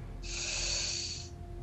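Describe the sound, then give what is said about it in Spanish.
A single long, deep breath drawn in through the nose during a breathing exercise, with hands resting below the chest on the ribs; an airy hiss lasting about a second against a quiet low hum, with no talking. “O sea, inhalas”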